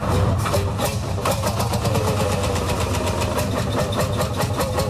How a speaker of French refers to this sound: Ah, vous entendez le bon vieux Massé Ferguson ou le John Deere que l'on faisait ronronner.